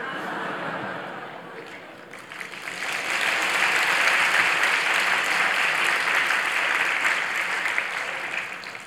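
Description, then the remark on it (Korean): A church audience bursts into sustained applause for a married couple, a dense crackle of many hands that swells after a softer opening and stays loud and steady to the end. “박수만 치지 말고 돈 걷어서 못다 하나 사주거든.”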